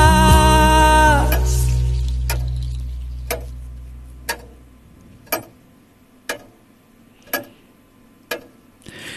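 A clock ticks steadily about once per second, each tick crisp, following a fading sustained musical tone and low hum; no one speaks.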